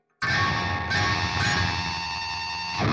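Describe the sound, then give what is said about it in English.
A guitar chord rings out loud, its bright, metallic overtones sustaining and shimmering for nearly three seconds with a slightly jangly, dissonant edge, as the top strings ring out past the nut. “it's just added noise from those strings ringing out past the nut.”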